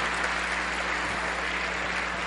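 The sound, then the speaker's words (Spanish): A large theater audience applauds a teacher, a dense, continuous wash of many hands clapping at an even, strong level without pause. “Y todo el público le aplaude fuerte a la maestra.”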